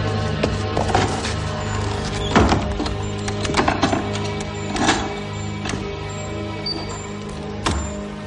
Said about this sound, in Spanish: el boticario baja corriendo las escaleras que llevan al patio helado y sube las escaleras de su laboratorio. Entra y cierra la puerta.